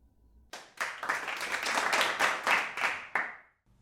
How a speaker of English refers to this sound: Courtesy clap.